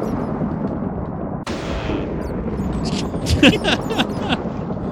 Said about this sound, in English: a lot of thunder and lightning for a Christmas episode.